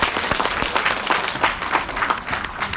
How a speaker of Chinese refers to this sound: 哇，好哇，我们观音哥热烈的掌声！